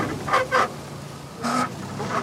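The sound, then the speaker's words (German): A rail draisine brakes to a jerky halt after its driver pulls a lever, its brakes giving several short, squeaky, honk-like squeals in uneven bursts, moderately loud, with no talking. “Die Dreisine hält ruckelnd an und Kevin legt sofort den Rückwärtsgang ein.”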